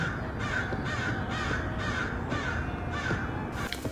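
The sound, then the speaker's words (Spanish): Birds screech and caw in a steady, harsh run of repeated calls, about seven loud rasping bursts in a row over a constant noisy background, with no voices present. “Pero no se pudo conseguir que hablaran como los hombres, solo chillaban, cacareaban y graznaban.”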